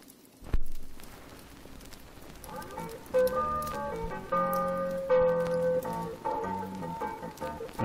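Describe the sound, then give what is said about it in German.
A record found lying on a turntable is played: a soft thump and a few seconds of crackly surface hiss, then music fades in with sustained, steady tones over the continuing crackle. No one speaks. “Bei dem Plattenspieler äh, liegt eine Platte auf. Okay, können wir die äh, abspielen?”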